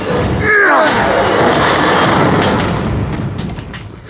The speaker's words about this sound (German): Angesichts der Umstände haben wir wohl keine andere Wahl. Wir müssen die Tür aufbrechen. In Ordnung. Auf drei. Eins, zwei, drei.